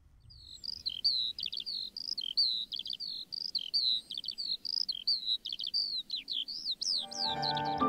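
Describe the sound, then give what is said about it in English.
A lark sings a continuous, rapid stream of high, bright chirps and descending trills, clear; near the end a low, sustained tone rises beneath the song. “I really hear that uh, the song of the lark, and I like that he incorporated that into this too.”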